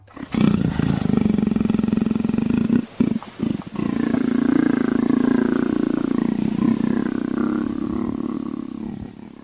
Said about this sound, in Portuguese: e aí? Onça Ronrona? Bom, vamos ouvir, vamos saber?